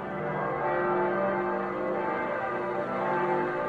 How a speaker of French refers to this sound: Les cloches de Londres carillonnent ensuite à l'unisson pendant six heures d'affilée.